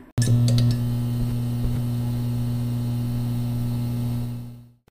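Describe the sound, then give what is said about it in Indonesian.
A loud, steady electrical buzz from a short-circuiting lamp in a classroom starts abruptly with a few crackling pops as the lamp is switched on, then drones continuously for several seconds before fading out. “Bunyinya tetap sama, tapi dia sadar bahwa suara itu berasal dari lampu yang koslet.”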